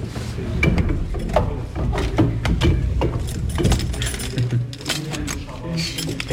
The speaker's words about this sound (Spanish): Eh, me gusta a mí los sonidos, como estamos en la radio, que se escuchen las llaves de la puerta de las armas, que se abren muy poquito